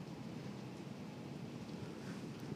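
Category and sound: nature, heavy rain pouring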